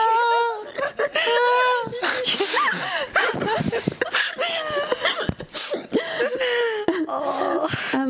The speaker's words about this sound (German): Lauter kleiner Angstschrei.